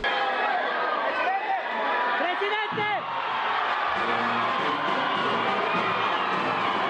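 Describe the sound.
A large crowd of supporters shouts and cheers continuously as president-elect Daniel Novoa arrives at the Palacio de Carondelet in Quito, with overlapping voices, whoops and excited calls forming a dense, loud roar that persists throughout.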